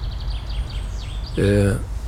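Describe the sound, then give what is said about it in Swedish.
Faint, rapid bird chirps repeat in a quick series over steady low background rumble on a summer morning, heard through the rolled-down windows of a stopped car with its engine off, followed by a brief, louder voice-like tone near the end. “Vevar ner eh, rutorna motorn avslagen naturligtvis, och jag hör fåglarna kvittra eh, denna underbara eh, sommarmorgon.”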